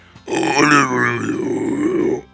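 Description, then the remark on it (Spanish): A voice imitates a screamo-style scream: one loud, raspy, strained vocal growl held for about two seconds, gritty and harsh throughout before cutting off abruptly. “No me acuerdo si está ahí una rola en Screamo. O sea, de gritar así de.”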